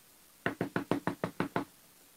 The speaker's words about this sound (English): Oh, no. Oh, no. Somebody knock at my door. Hello?